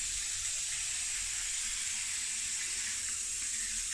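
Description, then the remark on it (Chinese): Steady running water from a shower while a dog is being bathed in winter, a continuous bright hiss with no breaks, fairly loud throughout, with faint low splashing underneath and no talking. “乖狗狗啊，虽然现在是冬天，但还是要乖乖洗澡，知道吗？”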